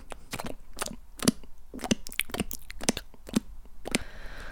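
Sweaty bare feet squelch and peel off a floor at home in a quick series of about a dozen sticky, wet smacks, fairly loud, with no one speaking.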